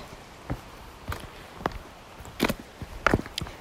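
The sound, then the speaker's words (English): Footsteps crunch along a rocky trail in Samaria Gorge, Crete, in October 2022, in an irregular walking rhythm, about seven or eight distinct steps over a faint outdoor background, with no talking, while hiking 16 kilometres down a rocky escarpment. “hiking in Samaria Gorge in Crete.”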